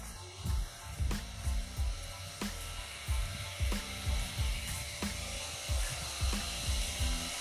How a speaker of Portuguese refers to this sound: Hoje no podcast do JNS você vai conhecer o barulho de uma bomba d'água. Para vocês que não são Nutella, não são raiz, vocês vão ver um som épico. O som de uma bomba d'água.